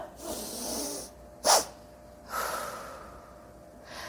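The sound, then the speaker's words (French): A person doing a two-stage relaxation breathing exercise: a long, deep breath in ends in one short, sharp, forceful gasping intake, followed by a deep breath out. No talking. “J'ai une première inspiration longue et en faisant cette inspiration, je la termine par une deuxième inspiration mais saccadée, forte, et en fait, fou suivi de l'expiration profonde.”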